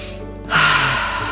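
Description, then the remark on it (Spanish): A single deep, forceful breath, a rushing airy sound that swells suddenly and holds for about a second, with no talking, as the person's breathing grows stronger. “Y conforme vas respirando y te vas sintiendo que esa respiración se hace más fuerte,”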